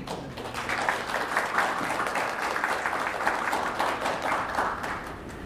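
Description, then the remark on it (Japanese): A steady round of audience applause welcoming a speaker from an NPO supporting foreign residents in Toyooka, at a talk on disaster prevention, many hands clapping in a dense, continuous patter that holds an even loudness for several seconds without anyone speaking. “それでは皆様拍手受けください”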